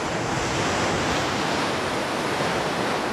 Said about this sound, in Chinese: 那么工程完工之后，白起下令开渠灌城，于是河水汹涌而来